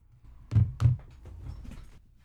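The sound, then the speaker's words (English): A cat bangs against a door: two heavy thumps in quick succession, followed by faint rattling and shuffling; muffled banging with no voices. “Fucking cat was banging on the door.”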